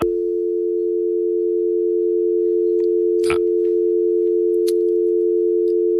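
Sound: telephone tone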